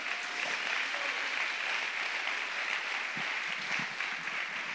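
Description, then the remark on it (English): A church audience gives the Lord a hand clap in a steady, dense wash of clapping that holds evenly throughout, with a few low thumps near the end and no voices standing out. “Can the church give the Lord a hand clap for that right there?”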